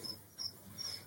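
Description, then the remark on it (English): Crickets being bred at someone's home chirp steadily in the background, with three short, high-pitched trills repeating at an even pace. The sound is fairly quiet, and no one speaks. “It's like I can hear those crickets in the background at your place going,”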